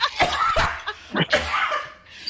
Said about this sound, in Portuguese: Ia tossir um pulmão.